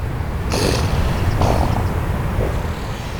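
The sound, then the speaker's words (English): Elephant seal pups snorting on the beach at Año Nuevo State Park, between Santa Cruz and Half Moon Bay, as they train to hold their breath, two sharp, breathy bursts followed by a fainter third, set against a steady low rumble of wind or surf outdoors. “She says the snorting is the sound of the seal pups training to hold their breath.”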